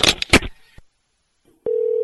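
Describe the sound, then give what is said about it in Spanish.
On the Luis Jiménez Show radio broadcast, the host hangs up on a phone call: a rattle of handset clatter and a sharp click, then a short silence, another click, and a steady, loud, mid-pitched dial tone that hums on unbroken. “Eso es una falta de respeto que tú me cuelgues así.”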